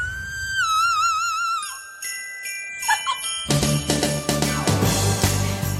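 A Christmas pop song plays: a high, wavering sung note over twinkling bell chimes, then a full band with a driving beat bursts in loudly for the last couple of seconds.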